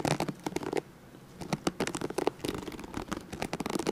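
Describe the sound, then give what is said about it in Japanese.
A fingernail flicks across brush bristles, making quick dry rattling clicks in bursts, with a short pause near the start before a longer steady run. No one speaks. “正解はブラシを爪でカラカラして”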